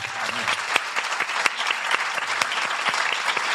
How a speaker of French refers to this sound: avec un gros tonnerre d'applaudissements